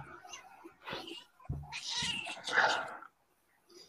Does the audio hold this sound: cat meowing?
yes